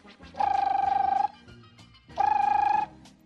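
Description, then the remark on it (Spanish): A telephone rings twice in steady electronic bursts, each trilling tone lasting under a second with a short pause between, clear and fairly loud with no one talking. “Y que suena el teléfono.”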